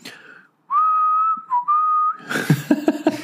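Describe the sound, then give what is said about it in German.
A person whistles a short, clear tune, holding a few steady notes with brief breaks between them, loud, before the melody gives way to a burst of noisier sound. “ist oder sowas, läufst du pfeifend über die Promenade.”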